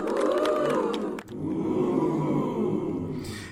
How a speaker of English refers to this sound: arrows then begin to kind of detonate and explode in the air, you know, bang, bang, bang, bang, bang, bang, bang, as candy, uh, then little glowing candies basically go ahead and rain down on top of the, the children as you hear from the audience.